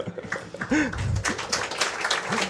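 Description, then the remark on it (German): A live audience at the 30th Chaos Communication Congress applauds steadily, a dense wash of clapping hands, with scattered voices and brief calls rising over it throughout. “Wir haben sogar Applaus, eigenen Applaus mitgebracht.”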